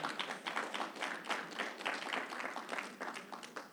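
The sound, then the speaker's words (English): An audience at Highlight Church claps for God and Jesus, a dense, steady patter of many overlapping hand claps that holds at an even, moderate level for several seconds with no one talking. “Let's clap it up for God, for Jesus.”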